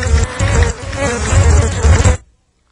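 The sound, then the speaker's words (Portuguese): A dense, loud swarm of bees buzzes continuously on a sound effects record, a thick droning hum that fills the space for about two seconds before cutting off abruptly into silence. “Por favor, Técnica, tire esse disco de efeito de abelhas.”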